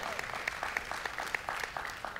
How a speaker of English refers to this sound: we have averaged more people participating online than on site. Okay, so this is yeah, yeah you guys can clap.